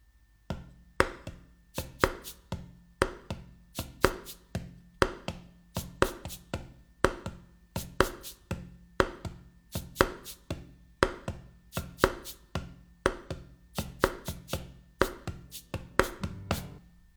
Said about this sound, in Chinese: Nick 好奇地走过去，发现是流浪汉在把玩手中的纸杯。纸杯的盖子是塑料的，用手敲打能够发出滴滴的“梆梆梆”的声音。